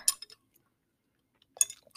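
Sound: sipping coffee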